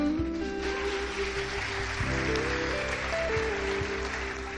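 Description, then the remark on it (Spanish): An audience claps steadily throughout, applauding the Lord, a dense wash of applause blended with sustained keyboard chords playing underneath, with no one speaking. “Dale el aplauso al Señor.”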